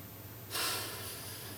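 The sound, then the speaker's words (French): After a brief quiet moment, a single long exhale breathes out, a steady airy hiss that fades only slightly as it continues. No one speaks. “Et puis la respiration, l'inspire l'expire.”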